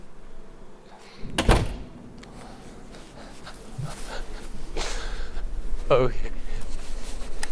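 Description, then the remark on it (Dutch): A front door shuts with a single solid thud early on, followed by a steady, faint outdoor background with a few soft knocks and shuffles. “Ja, ook achter die deur speelt zich vast van alles af.”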